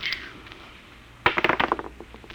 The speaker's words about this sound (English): Those dice? Clinton, do you know what the odds are against my rolling a seven?